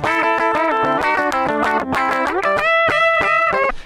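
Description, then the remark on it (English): Heavily distorted electric guitar playing a fast, busy phrase full of squealing harmonics, with bright overtones stacked above each note and rapid pitch shifts, loud and continuous with no voices. “And I just never heard those kind of sounds coming out of a guitar with all the harmonics.”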